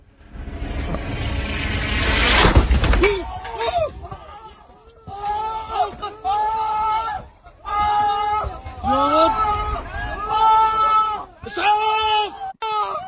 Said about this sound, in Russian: Взрыв.